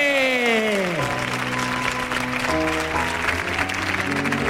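Loud, sustained applause from a crowd, a dense steady clatter of clapping over music, which opens with a sliding tone before settling into held notes.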